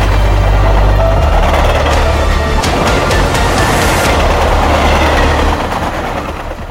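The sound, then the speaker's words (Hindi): A fast express train rumbles past on the rails, loud, with a deep steady roar and a burst of rhythmic clattering wheel clicks midway before the noise gradually eases off. “बछड़े के धक्के से लड़खड़ा के राघव के पिताजी खुद ट्रेन के नीचे आ गए”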